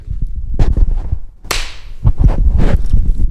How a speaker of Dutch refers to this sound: had er nooit aan gedacht, maar zonder die klap weet ik niet waar ik moet synchroniseren.